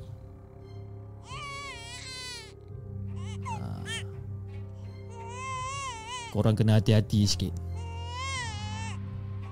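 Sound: baby crying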